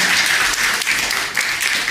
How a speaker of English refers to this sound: Bless you guys. Yes, give them a clap if you want. Thank you.